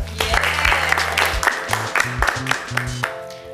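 A crowd claps steadily for a few seconds, the applause dense and sustained, with a low droning tone running underneath and brief sharper bursts near the end.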